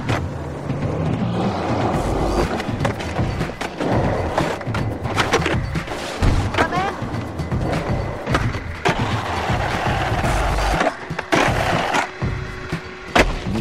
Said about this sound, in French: Je sais pas si on a bien entendu, ceux qui ont été attentifs ont entendu les bruitages, il s'agit de skate.